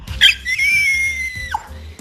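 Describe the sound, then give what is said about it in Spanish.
A dog named Sherlock, recorded in a voice note, lets out a single long, high-pitched howl that holds a steady tone for over a second before dipping and trailing off. No one talks over it. “Pues nosotros, el Sherlock, que es mi perro y yo. Saluda, Sherlock.”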